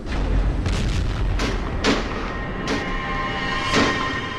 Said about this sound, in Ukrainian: А втім, за хмарним накипом чути і інший гул, глуха канонада. Насуваються дві грози.